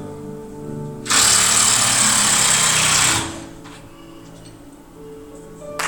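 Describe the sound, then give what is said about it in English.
A power driver whirs loudly for about two seconds as screws are backed out of a door, a steady high-pitched buzz that cuts off abruptly, leaving quiet background hum. “He's going to take the screws out of the door and we're going to be able to open this bad boy up.”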